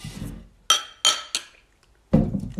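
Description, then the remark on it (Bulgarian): Glasses clink together in a toast, three bright ringing taps in quick succession, fairly loud, each chime fading briefly before the next, with low murmuring sounds around them. “На здраве!”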